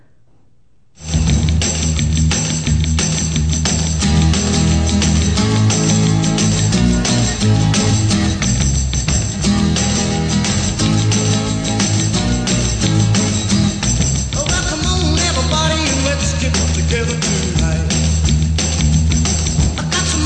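An upbeat 1950s rock and roll song kicks in after a brief moment of quiet and plays loud and steady throughout, with driving rhythm and full-band instrumentation.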